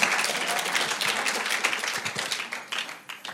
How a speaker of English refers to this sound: I'm sorry, but when I preach, we have one rule, and that is if one person claps, we all clap. And some of you didn't clap.